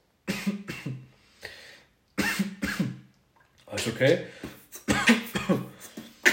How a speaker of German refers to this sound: Und ähm, hust erstmal aus.